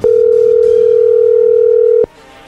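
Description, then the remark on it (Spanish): A phone line ringing out on a call that goes unanswered: one loud, steady electronic tone holds for about two seconds, then cuts off abruptly, leaving faint line hiss. “Sí, la cosa es que no está contestando.”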